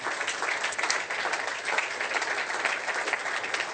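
A crowd applauds steadily, a dense wash of many hands clapping at once with no breaks, holding an even, moderate loudness for the whole stretch and no voices standing out.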